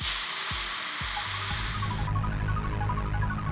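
Steady, crackling sizzle of eggs frying in a hot pan, loud, with a few low thumps early on and the bright hiss dropping away partway through.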